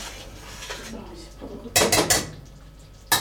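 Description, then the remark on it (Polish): Finished spaghetti being stirred in a pot on a gas stove after the heat is switched off: a utensil scrapes and clanks against metal in a short cluster of bright, rattling strokes, then one more clink at the end, over a quiet background. “Spaghetti mamy gotowe, wyłączamy, Przemieszamy.”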